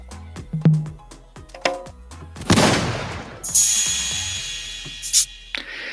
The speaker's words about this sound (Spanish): Entonces van a escuchar cosas como los aplausos o como los eh, tronidos de dedos y también pueden escuchar algunas percusiones.